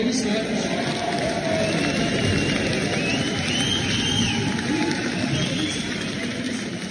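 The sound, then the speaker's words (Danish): A standing ovation from a large crowd at the Danish People's Party (Dansk Folkeparti) national conference for Inger Støjberg, a steady dense wash of clapping that holds at an even loud level for several seconds, with faint murmuring voices underneath. “Ja, det lyder af stående applaus øh, for, øh, for Inger Støjberg, tidligere venstre kvinde og nu løsgænger.”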